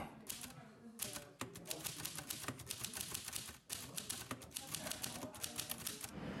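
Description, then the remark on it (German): Rapid, uneven clacking of a small flat mechanical typewriter made by Gossen, a light-meter maker that built typewriters in the late 1940s and early 1950s; keys strike in quick bursts with brief pauses, fairly loud, with no voices. “Ja, die Firma Gossen hat in den Ende der 40er und Anfang der 50er Jahre Schreibmaschinen hergestellt.”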